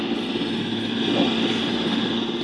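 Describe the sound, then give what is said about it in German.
A steady, droning helicopter engine from a video game hums continuously at a constant level, with a low rotor-like throb and no voices, as the player flies the helicopter. “Ich fliege jetzt mit dem Helikopter.”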